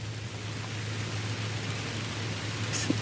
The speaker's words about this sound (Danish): Altså, mest på grund af regnen, ikke?